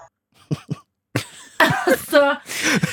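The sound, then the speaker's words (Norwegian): An African grey parrot, filmed at night, imitating a human voice, squawking out a speech-like command to Alexa to order pulled pork in a fairly loud, slightly raspy tone, preceded by two short cough-like clicks. “Det er en grå jakkopapegøye ja. som da er filma på natta. At han bestiller pulled pork.”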